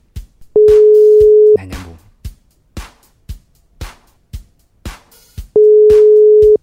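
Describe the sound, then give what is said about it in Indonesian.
A steady electronic telephone ringback tone, heard as a phone call is placed to a radio announcer, sounds in two long beeps about four seconds apart, with sharp regular clicks ticking throughout and a brief burst of dialing noise after the first tone. “kita mulai telepon aja ya Idoy mana Idoy Idoy Idoy”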